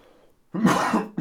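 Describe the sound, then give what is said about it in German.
A rough throat clearing and cough: quiet at first, then a loud raspy burst lasting over half a second, followed by a second short cough-like burst. No one talks. “immer wenn ich, wenn ich husten muss oder du”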